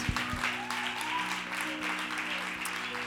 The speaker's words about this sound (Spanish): Vamos a dar un fuerte aplauso a nuestro Dios.